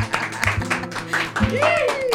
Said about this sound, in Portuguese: Bate palma, bate palma.